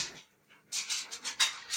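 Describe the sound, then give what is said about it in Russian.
A plump Labrador's claws click and scratch across a hard floor as it walks and runs around, in a quick, irregular run of soft taps, quiet, with no voices. “Да она там собачка цокает.”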